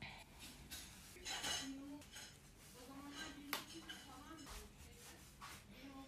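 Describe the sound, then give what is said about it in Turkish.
Dishes and pots clatter and clink repeatedly in the background, with sharp metallic knocks scattered throughout, while a person speaks over the noise. “odaklanamadığım için inanılmaz derecede tabak çanak sesi geliyor da olabilir.”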